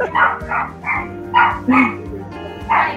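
A dog barks about six times in quick, slightly uneven succession, loud, with no one talking.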